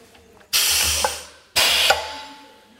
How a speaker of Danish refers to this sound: Og så har jeg en kapselpåsætter stående her. Og der slækker vi en. Den er pneumatisk, så den har en fin lyd, som I kan høre lige om lidt.